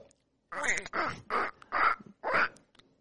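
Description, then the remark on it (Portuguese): A person imitates a cartoon duck voice with five raspy, squawking bursts in quick succession, fairly loud, with short silences between them. “imita Pato Donald perfeitamente”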